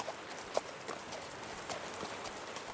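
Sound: horse hooves clip-clopping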